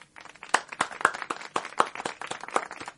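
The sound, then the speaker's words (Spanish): Audience applause with a steady patter of many overlapping claps, a few sharper louder claps standing out, moderately loud for about three seconds with no voices, greeting Nelly Díaz, a civil registry public workers' union leader, named person of the year to receive her prize. “Aplausos.”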